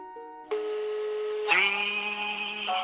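Electronic telephone tones step from one steady pitch to another as a phone number is dialed before the line rings, clear with no voices.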